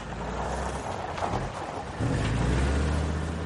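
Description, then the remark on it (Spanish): A car engine drones steadily as it climbs, a low rumbling hum that grows louder and heavier partway through as the vehicle strains uphill, with no one speaking. “El coche sube por la ladera.”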